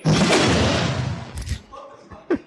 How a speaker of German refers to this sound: what you can see here is one sword sound effect. And it's made up of 15 different other sounds